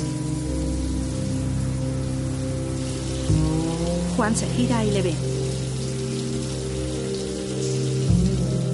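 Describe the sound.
Shower water runs steadily throughout as a constant hissing spray while a young man showers naked in a gym locker room, with sustained low musical tones underneath and a man's voice speaking briefly over it midway.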